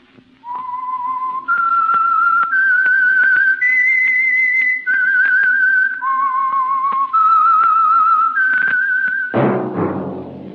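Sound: whistled theme tune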